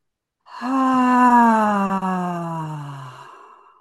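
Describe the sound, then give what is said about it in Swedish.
A long, voiced sighing exhale through the mouth during a breathing exercise, a steady hum-like tone that slowly drops in pitch over about three seconds before trailing off into breathy air. Fairly loud, with no talking. “Och på utandning så sätter du till lite ljud.”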